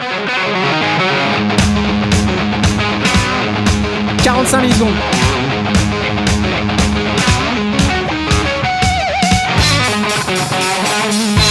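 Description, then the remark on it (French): A dense, loud distorted electric guitar plays steady rhythmic chords with regular sharp attacks, sustained gritty tone throughout, with a voice speaking briefly over it. “Moi j'aime bien les, les short sur une guitare, ah c'est cool.”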